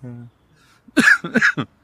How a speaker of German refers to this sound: siehst du, sofort fange ich an zu husten.